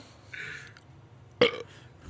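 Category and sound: human body sound, burp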